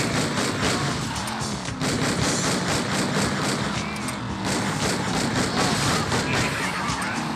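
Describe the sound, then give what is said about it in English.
Rapid, continuous video game gunfire crackles loudly and densely for several seconds, layered over a rumbling engine-like roar with occasional sharper bursts and crashes. “It's gonna keep shooting though.”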